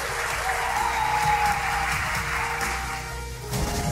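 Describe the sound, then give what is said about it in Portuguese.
Steady audience applause fills the space, a dense wash of many hands clapping at moderate loudness, with faint cheering and crowd murmur mixed in before it begins to thin out. “Um, vamos dar um aplauso para a família paranormal.”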